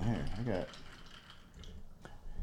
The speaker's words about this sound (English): I'm gonna pour a this Rainier to freshen up the bubbles in like, this cocktail.